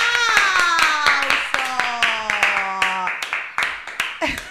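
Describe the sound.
Steady, rhythmic applause: sharp claps land at an even, brisk pace for several seconds, with a sustained voice-like whoop slowly sliding lower in pitch over the first three seconds.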